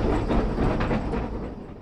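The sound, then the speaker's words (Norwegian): A steady, loud rumble of a tram rolling along its track in a tunnel inside a mountain, at the end of the tram line before the Gaustadbanen cable railway, with a dense low roar and faint rhythmic clatter, no talking. “Det vil si at det her er enden av eh, trikkebanen, og så skal vi inn i sjølve Gaustadbanen.”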